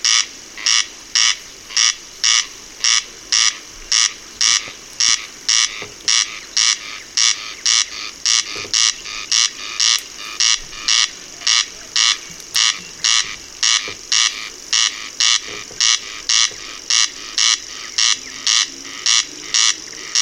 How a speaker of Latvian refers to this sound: Jā, grieze, grieze griež, tā saka arī ornitologi, un grieze nav dziedātāja putns, tātad viņas dziesma ir iedzimta. Nu tad paklausīsimies, kā grieze griež.